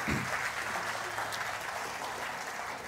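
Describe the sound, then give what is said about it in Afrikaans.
An audience at a Resurrection Sunday church service claps to welcome the online audience, a steady, dense patter of many hands that holds at an even level throughout without anyone speaking over it. “Kerkfamilie, kan ek vra, kom ons verwelkom ook net ons aanlyn gehoor met 'n lekker verwelkomende hande klap.”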